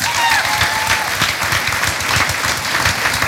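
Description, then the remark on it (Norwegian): Steady, dense clapping from a group of people, a continuous patter of many hands that stays loud and even throughout, with a faint high whistle-like tone briefly at the start. “Ja, en liten applaus.”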